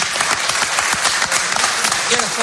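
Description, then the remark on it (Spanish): Steady, loud applause from an audience, a dense wash of many hands clapping continuously with no pauses, blended with a faint murmur of voices underneath. “a dar un aplauso a los miembros”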